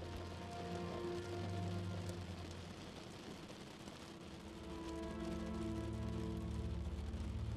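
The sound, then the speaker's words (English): Steady rain patters against a window, a dense hiss of droplets with scattered sharper taps, soft and continuous throughout with a low, humming drone underneath and no voices. “Listening to that soothing sound, each raindrop fades out.”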